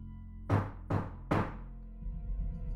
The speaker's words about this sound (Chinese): 我隐约听到有人敲门